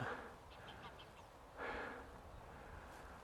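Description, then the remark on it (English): A flock of geese honks over open fields in a loose, overlapping chorus, a burst of calls swelling around the middle before fading back into a steady outdoor hiss. “And I'm uh, on an area of open fields, and here's another flock of, of geese. Oh, there's plenty of them.”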